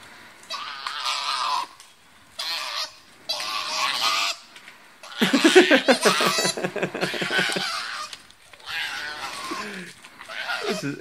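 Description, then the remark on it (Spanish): Koalas fighting: a series of loud, harsh squalling cries in bursts separated by short pauses, with one deeper, rattling bellow in the middle, with no one talking. “Son koalas peleando.”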